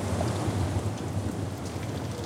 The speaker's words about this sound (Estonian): rängad vihmavalingud, tugev tuul ja valik õuerüma muutsid vestlemise raskeks.